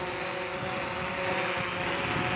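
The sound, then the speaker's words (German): A drone flies with a steady, high-pitched motor whine and buzzing propeller noise, hovering at a constant, fairly loud level, with no talking. “Sie werfen Haschisch, Heroin oder Handys über Anstalten ab oder fliegen sie gar an die Zellenfenster fast wie bei Amazon.”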